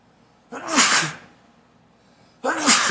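Two loud, close sneezes about two seconds apart, each a sharp burst of breathy noise with a brief quiet gap between them.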